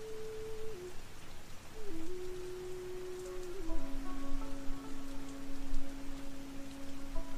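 Steady rain falls in a dense, even hiss, with a low sustained tone gliding between a few pitches underneath it. No one speaks.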